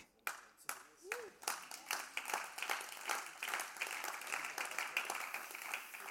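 An audience claps, starting with a few scattered sharp claps that quickly thicken into steady, dense applause, holding at a moderate level through to the end.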